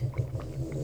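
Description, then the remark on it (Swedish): A low, rumbling snore from a dog, steady, with a throaty buzz that rises and falls briefly across under a second, with no talking. “Ja, det där var min hund som snarkade.”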